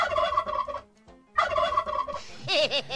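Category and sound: bird, turkey gobbling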